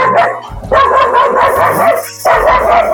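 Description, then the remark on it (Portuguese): A dog barks loudly, a few sustained, yappy barks in quick succession with brief pauses between them, no voices present. “O cachorro até quis participar agora.”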